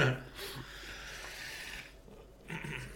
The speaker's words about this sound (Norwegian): Nå trakk du pusten godt og hoppa på ja.